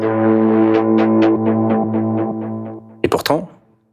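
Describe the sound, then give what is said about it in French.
A heavily processed synthetic tone built from a sample, with steady stacked harmonics and rhythmic, pulsing bursts of upper overtones, holding for about three seconds before a short, harsh flurry of noisy, warbling fragments. “Ça, c'est pareil, tu vois, c'est un son euh, qui est basé sur un sample”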